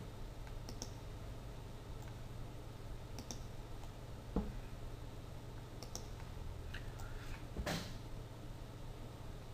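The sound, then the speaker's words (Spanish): Several quiet, sharp clicks scattered over a steady low hum, then a single slightly louder key tap, as a mouse clicks to select a segment of a drawing on a computer and the delete key is pressed. “Si yo quisiera eliminar un segmento, pues simplemente hago clic en ese segmento, veis cómo se selecciona y ahora le doy a suprimir.”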